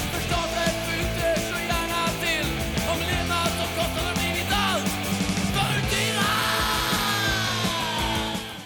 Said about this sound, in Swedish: Då finns det ett, ett skrik där som man måste trycka till på.